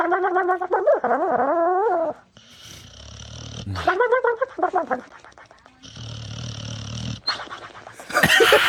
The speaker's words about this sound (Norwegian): Og det som er så magisk med den videoen, er at bikkja ligger og sover eh, på sofa i drømmeland og snorker på den komiske måten.